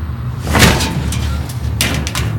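A ventilation grille in a ventilation duct is pulled loose by a man: a sharp metallic scrape and clunk, then a second rattling scrape a moment later, over a steady low rumble.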